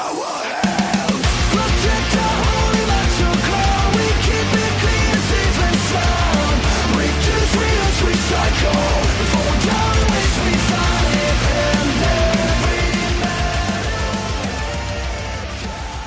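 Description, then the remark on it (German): A loud, dense stretch of a self-made metal song plays without pause, heavy distorted guitars and pounding drums filling the sound, with possible shouted vocals and no talking over it. “Am besten natürlich in Kombination mit einem Song und hoffentlich ist der auch gut.”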